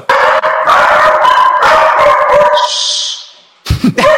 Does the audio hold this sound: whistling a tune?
no